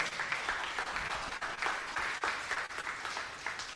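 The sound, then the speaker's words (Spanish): A church audience applauds loudly and steadily for the Lord during a morning service, a dense crackle of many hands clapping at once that holds for several seconds with only brief dips. “Así que si tú tienes poder, iglesia, oiga, si le un aplauso, déselo fuerte al Señor, déselo fuerte al Señor.”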